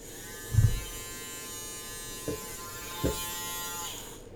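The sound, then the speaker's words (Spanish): A small electric milk frother whisks milk into foam in a glass, whirring with a steady, high-pitched motor buzz for several seconds, with a few soft knocks against the glass partway through; no one speaks. “Esto es un espumador, ¿vale? Pues con el espumador lo mezclamos, la leche, y sale con espumita cuando tengamos ya las pumitas, echamos.”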